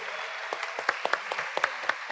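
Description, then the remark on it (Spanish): An audience applauds the freestylers invited onto the stage at a freestyle rap event, many hands clapping in a dense, steady patter with sharper individual claps popping out now and then. It holds at a moderate level throughout, with no voices. “Quiero invitar a todos los freestylers que estuvieron el día de hoy que vengan acá al escenario y que les demos un fuerte aplauso para todos.”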